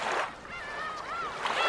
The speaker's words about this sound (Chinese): 这是大海的声音